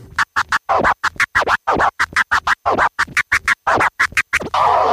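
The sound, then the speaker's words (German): Rapid turntable scratching, chirp-style strokes mixed with flare cuts: a fast, rhythmic run of short, choppy pitch-sweeping bursts chopped by quick silences, loud and without any talking. “Also, vom Back to Chirp. und dann ein Flair. Und die zwei kombiniert.”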